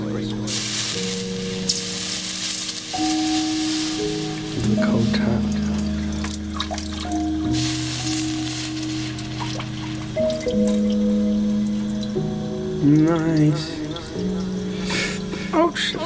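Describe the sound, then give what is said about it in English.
A hot soldered joint quenched in water, giving off bursts of hissing, spitting sizzle that swell and fade over a steady layer of tonal humming sounds. “Right, just gonna quench this great noise.”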